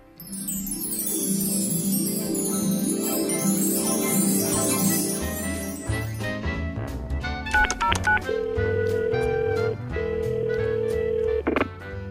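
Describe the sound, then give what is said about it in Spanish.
Steady telephone dialing tones sound over a musical backdrop as a call is placed to a parental PIN hotline, followed by a series of short beeping tones and a ringing signal, loud with no voices. “En la radionovela de hoy, eh, pues vamos a hacer una llamada a este teléfono.”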